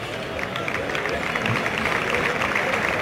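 A large bullring crowd gives an ovation to the sixth and final bull, from Domingo Hernández's García Grande ranch: a dense, continuous patter of clapping with a low murmur of voices underneath, holding at an even loudness throughout.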